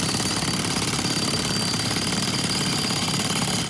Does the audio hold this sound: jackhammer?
yes